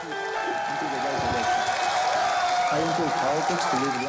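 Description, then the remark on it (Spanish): A large conference audience bursts into sustained applause after Bukele announces a bill to make Bitcoin legal tender in El Salvador, steady and dense for the whole stretch, mixed with cheering and shouting voices that rise over the clapping. “La audiencia estalló en aplausos.”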